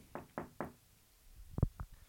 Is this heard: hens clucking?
no